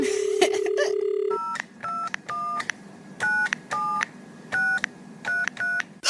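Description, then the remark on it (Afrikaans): After the receiver is picked up, a steady dial tone cuts off, followed by a run of about ten short electronic keypad beeps as Neno dials Susan's phone number, each tone distinct, evenly spaced and clear. “Derde Skakel net nou die nommer van Susan.”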